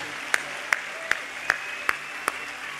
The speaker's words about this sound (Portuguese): Pode aplaudir. Aplauda Jesus.